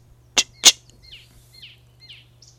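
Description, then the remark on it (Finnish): Two sharp, loud smacking clicks from a small bird in quick succession, an icterine warbler's alarm call, given when someone approaches its nest after the chicks hatch, followed by several softer, fainter chirping notes over a low steady background hum. “Varoitusääni on maiskuttava.”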